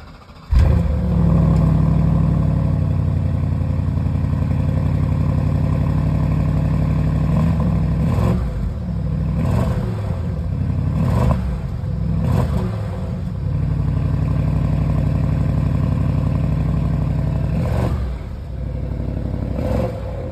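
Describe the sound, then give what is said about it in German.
A Bentley Flying Spur engine starts and revs repeatedly, with several sharp throttle blips over a steady, deep idle rumble, loud with no voices. “in einem ganz besonderen Auto und auch wenn es eine Weihnachtsfolge ist, starten wir natürlich mit dem Sound dieses Fahrzeugs.”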